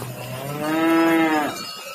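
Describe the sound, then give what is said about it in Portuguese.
A cow moos once, a long, steady low call lasting under a second, heard clearly with no talking. “Olha lá, é uma vaca viva, olha lá.”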